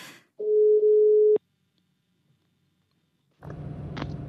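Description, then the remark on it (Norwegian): A single steady telephone ringing tone as Radio Buvik calls Therese Johaug sounds for about a second, cut off abruptly, followed by silence and then a muffled, noisy line pickup. “Men vi i Radio Buvik skal nå ringe av Therese og høre åssen det går med henne.”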